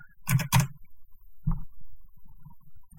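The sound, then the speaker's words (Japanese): A few loud, clacky computer keyboard keystrokes as someone types a search: two sharp hits in quick succession, then a softer single thump a second later, with no one talking. “ちょっと今検索してみますね。どんな、正確にどんな話になったか。非常にうるさいキーボードで失礼します。”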